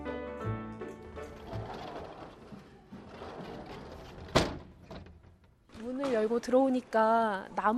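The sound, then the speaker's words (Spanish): The old wooden sliding entrance door of a Korean railway station at Koksan, opened in 1933, rumbles and scrapes open, ending in a sharp wooden thud, followed by voices talking. “Al abrir la puerta corredera te encuentras con una sala de espera como de las antes, con asientos de madera muy antiguas.”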